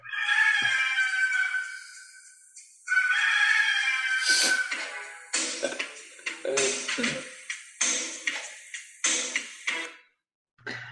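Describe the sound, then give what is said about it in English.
The Red Rooster Terry Taylor's wrestling entrance theme song opens with two loud, drawn-out rooster crows, then breaks into a punchy, rhythmic run of sharp accented hits before cutting off abruptly. No one speaks. “when I was like 14, I really wanted this theme song.”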